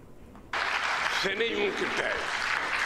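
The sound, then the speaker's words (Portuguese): In a played recording of a speech, applause breaks out abruptly and continues as a steady, dense clatter of many hands clapping, though some people do not applaud. A voice is briefly audible over the crowd partway through. “Algumas pessoas não aplaudiram.”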